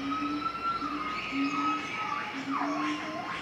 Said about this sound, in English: What's that noise? I asked. He smiled and said, Howler monkeys welcoming you to the jungle.